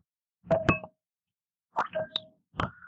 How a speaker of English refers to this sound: And after you propose the toast, we'll click our glasses against the receiver.